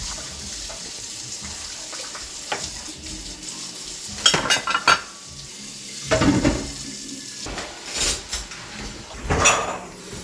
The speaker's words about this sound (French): j'ai donné un extrait de vaisselle